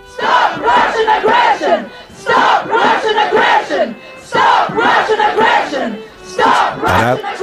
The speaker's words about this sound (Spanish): la agresión rusa, gritaron los ucranianos, repartidos por todo el mundo hace hoy un año, ante las embajadas de Rusia. Parad la agresión, que no la guerra, porque la guerra vino luego.